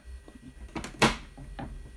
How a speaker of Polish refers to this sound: dolałem, jest pełen zbiornik. Teraz zamykam klapkę.